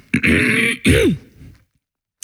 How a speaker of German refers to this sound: ich musste mich irgendwie räuspern und dann ist aber der Frosch nicht ganz rausgekommen. Und dann habe ich einfach gedacht, was hey, klingt lustig.